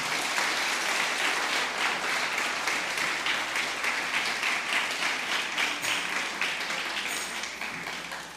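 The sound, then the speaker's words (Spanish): An audience claps hands in steady, sustained applause, a dense crackle of many hands that stays loud throughout and begins to fade slightly near the end. “Junte sus palmas, tome asiento mientras...”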